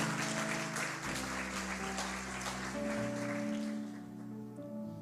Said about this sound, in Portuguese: Você quer aplaudir? Aplauda o Senhor, irmão. Vamos juntos.